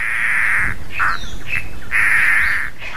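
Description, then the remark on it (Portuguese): Mato Grosso antbird (chororó do Pantanal) song in the Pantanal: a series of loud, harsh, raspy bird notes in several clear bursts over a few seconds, with no one speaking. “mas tem outros cantos de espécies comuns ali no Pantanal que marcam, como por exemplo o catatal, chororó do Pantanal”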